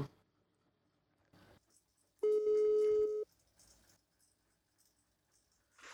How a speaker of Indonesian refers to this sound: gua harus telepon dia karena dia lagi sibuk kita telepon dulu